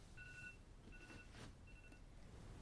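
An alarm beeps three times in an even, steady rhythm, each tone short and electronic, the later beeps a little softer, over a low background rumble with no talking; the alarm is set because the speaker is about to go train.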